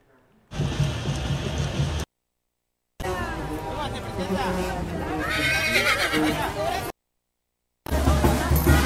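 A horse whinnies loudly in several bursts separated by short silent breaks, its shrill, wavering neigh rising over a busy, noisy background that sounds like a murmuring crowd.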